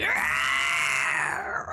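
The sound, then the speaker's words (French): A person voices a cockatrice's dying scream as a magic projectile strikes it: one loud, sustained, strained shriek lasting under two seconds, rising slightly then trailing off at the end, with no other talk. “Euh, donc ton projectile magique vient frapper la cocatrice qui hurle un dernier cri”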